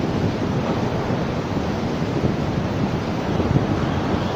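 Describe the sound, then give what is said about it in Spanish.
Strong, steady wind from a tropical storm roars across the microphone in Mazatlán, Sinaloa, Mexico, a dense low rumble with slight surges in force throughout. No voices are heard. “Eh, por momentos llega fuerte el aire, el viento, fuerte el aire, viento.”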